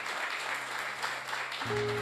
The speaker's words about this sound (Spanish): Así que quiero honrarlos y denle un fuerte aplauso, son bienvenidos a esta casa.